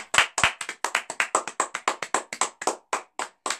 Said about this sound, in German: Jetzt mal kurz applaudieren für die Hörer.